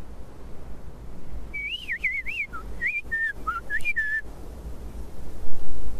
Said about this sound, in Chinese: 嘘，那是什么声音？好像是一只被困在荆棘中的小动物。哦，是一只画眉鸟。可怜的小家伙。